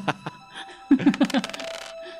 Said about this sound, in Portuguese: som, de, som de porta batendo.